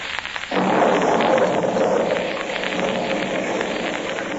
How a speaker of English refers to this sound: As our story opens today, a heavy thunderstorm is gradually diminishing.